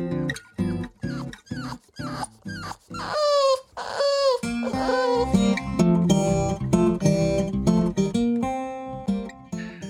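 A dog whimpers and growls in a string of short, rhythmic bursts, with high whining glides rising and falling in pitch midway through. The sounds are fairly loud, and no one speaks.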